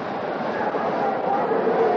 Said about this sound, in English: And the crowd is reacting. And now the dad is talking to the park policeman, and of course the crowd is on the side of the dad. And that's the roar that you hear.